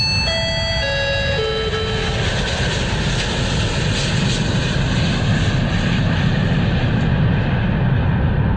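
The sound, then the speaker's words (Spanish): An airplane departing: a loud, steady engine roar fills the whole stretch, opened by a few bright descending chime tones during the first couple of seconds. No one speaks. “Causa anuncia la partida de su vuelo a las mejores experiencias en el arte de viajar.”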